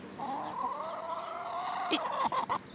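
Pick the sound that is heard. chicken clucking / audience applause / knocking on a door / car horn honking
chicken clucking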